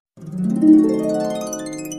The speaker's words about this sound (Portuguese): O tigre ficou furioso e rugiu bravo.